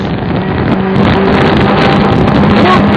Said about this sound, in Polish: Łódka